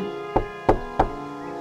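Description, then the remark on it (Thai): Three firm knocks on the door of a small house, evenly spaced about a third of a second apart, fairly loud, with nothing else in the background and no voices. “กลิ่นอะไรอะหอมจังเลยหิวโกดีล็อกก็ได้ตามกลิ่นไปจนมาถึงบ้านหลังเล็กๆหลังหนึ่ง เธอได้เคาะประตูเสียงดัง”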